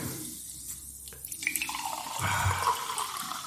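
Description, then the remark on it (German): Water is poured into a glass as a refill, starting with a few light splashes and drips, then a steady gurgling stream that rises in pitch as the glass fills, with no one speaking. “Darf ich dir noch Wasser nachschieben? Darfst du. Lass es sprudeln.”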